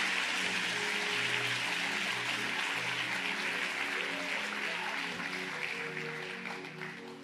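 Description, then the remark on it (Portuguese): An audience with raised hands applauds the Lord steadily in a dense, continuous wash of clapping. Sustained low tones hum beneath it, and the clapping thins slightly toward the end. “Se você crê, levanta a tua mão e aplauda ao Senhor.”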